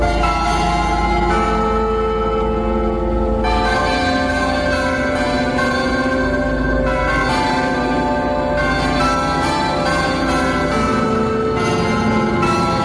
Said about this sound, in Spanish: Mira, quiero que escuches atentamente este sonido. Son las campanas del Ayuntamiento de Zamora.